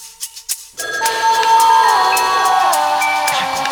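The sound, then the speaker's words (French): A few soft clicks, then a phone ringtone starts up, a steady electronic melody of bright tones that plays loud and continuous until the end. “Why do you keep calling me? Why?”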